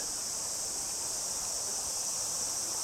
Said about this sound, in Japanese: うん、またセミがすっごい鳴いてて。